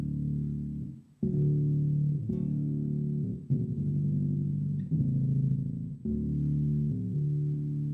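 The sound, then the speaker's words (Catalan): An electric guitar runs through an octave pedal with both octaves turned fully up, playing two notes at once, sounding thick, layered chords that are struck several times and left to ring. The tone is warm and slightly gritty, with no voices. “poso les dues octaves a tope i toco dues notes.”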